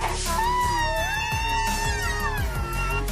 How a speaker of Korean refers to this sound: 탱크와 다름없는 단단한 몸집과 강력한 뿔을 이용해 상대를 초전 박살내는 코뿔소는 사나운 성질을 가지고 있는 동물로 유명한데요. 하지만 의외로 코뿔소는 고양이를 연상시킬 정도의 울음소리를 가지고 있어 은근히 귀엽게 느껴질 정도입니다.